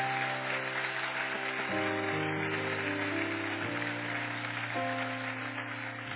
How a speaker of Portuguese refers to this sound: Eu quero que você aplauda o Senhor pela vida dessa mulher.